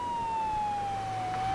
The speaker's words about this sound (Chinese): 一辆警车飞快地从远处驶来，稳稳地停在猴子警长面前。